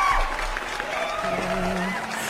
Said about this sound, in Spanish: señores, señores. Un aplauso.